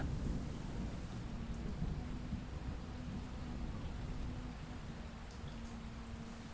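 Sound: heavy rain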